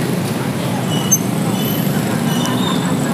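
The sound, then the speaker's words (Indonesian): A steady, heavy low rumble of a train rolling past, with faint metallic squeals flickering high above the drone throughout. “waduh ada kereta hahaha oke”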